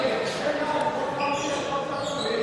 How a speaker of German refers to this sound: Herkenhoff atmet, ein paar Mal durch, kriegt den Ball, dribbelt und er trifft.